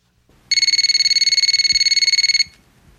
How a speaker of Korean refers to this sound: 일주일, 이주일 전화가 한 통 걸려왔습니다.